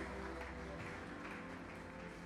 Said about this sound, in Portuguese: Toda a igreja dá uma salva de palmas ao Senhor.